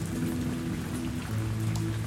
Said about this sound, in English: The rain pelted down on me, dripping through my sandy brown hair and turning my sky blue bun up the color of the night sky.